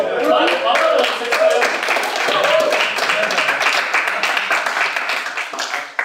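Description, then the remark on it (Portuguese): A class breaks into steady applause for the students, many hands clapping in a dense, continuous patter for about six seconds, with cheering voices and chatter mixed in underneath. “palmas para vocês.”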